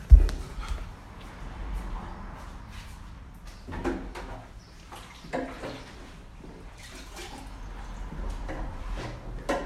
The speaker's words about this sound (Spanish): Ahí déjame sirve mi agua, mira. De la llave.